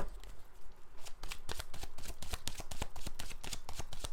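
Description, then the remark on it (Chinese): Tarot cards being shuffled for a tarot reading in a quick, steady riffle of crisp papery flicks and soft slaps, fairly quiet, with no talking over it. “那我今天全部都是用洗牌，直接讲解的方式来帮大家做解牌哦。”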